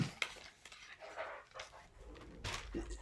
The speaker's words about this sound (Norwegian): Nå ble jeg distrahert av saksa her